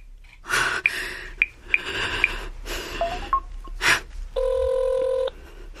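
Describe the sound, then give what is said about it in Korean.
Short keypad beeps tap out a number to call the drama production company Mirrorlist amid quick, heavy gasping breaths, followed by a single steady electronic ring tone that holds for about a second, clear. “여보세요? 네, 저 미러리스트 제작사죠. 방송 홈페이지 보고 전화 드리는데요.”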